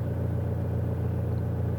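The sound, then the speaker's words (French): A car engine idles with a steady, low rumbling hum, unchanging, on a deserted road in the middle of the night, with no voices or other sounds over it. “Mais il n'y avait rien d'autre que le ronronnement de mon moteur.”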